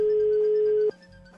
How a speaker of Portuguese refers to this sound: O telefone tá chamando.